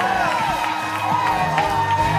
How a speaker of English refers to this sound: Somebody shouting here. Somebody shouting here.